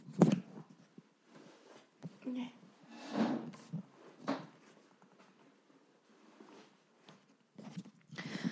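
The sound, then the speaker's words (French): A chair is accidentally shifted and creaks as someone resettles, with several scraping, clunking bursts spread irregularly across the quiet, and faint voice-like murmurs between them. “Attendez, je me réinstalle, j'ai bougé ma chaise sans faire exprès.”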